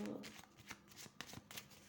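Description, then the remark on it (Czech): Tarot cards being shuffled to draw one card for a horoscope reading, a quick run of crisp papery riffles and flicks, with brief pauses between bursts and no talking. “Hodíme jednu tarotovou kartu, co se týče výkladu”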